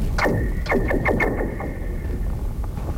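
A rock thrown at a glacial lake set between a cliff and a fjord rings out as a rapid series of descending, laser-like chirps with a thin sustained whine, reverberating and fading over a few seconds, with no voices.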